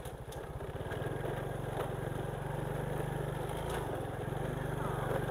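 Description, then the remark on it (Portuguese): A Honda motorcycle engine labors steadily in first gear, its loud, throbbing drone holding constant throughout as it pulls up a hill. “Aqui é só de primeira.”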